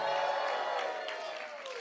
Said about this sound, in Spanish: Alguien grite, gloria a Dios. Dale un aplauso fuerte a Jesús. Alguien dele un grito de victoria a Jesús.